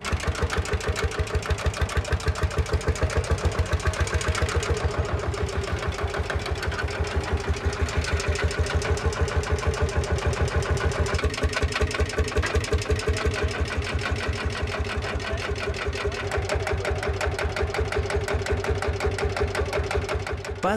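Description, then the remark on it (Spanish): An old Pampa tractor, just started up, runs steadily, its loud, rapid thumping beat holding an even rhythm for the whole stretch with no voices over it; it is working the land again in Córdoba. “e hijo logran poner en marcha el viejo tractor Pampa.”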